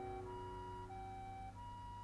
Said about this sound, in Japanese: 遠くで救急車の音が聞こえる。